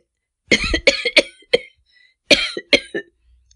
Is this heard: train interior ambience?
no